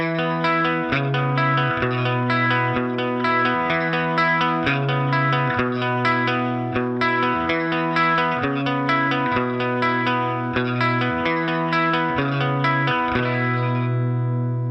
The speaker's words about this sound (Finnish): siinä on se intro-riffi, niin se riffi on niin kuin silleen soitettu, että siinä on niin kuin paria nuottia pidetään koko ajan